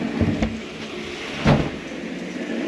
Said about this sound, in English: Look at this. This is a revolving door. Let's go through the revolving door. Yeah, it just kind of goes around in a circle.